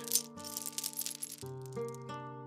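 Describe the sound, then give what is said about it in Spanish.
Metal shackles rattle and clink in a jangling burst for a second or so, then settle, while a steady low musical drone with shifting chords plays underneath. “cómo unos grilletes se empiezan a mover.”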